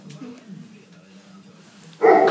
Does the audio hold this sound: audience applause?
no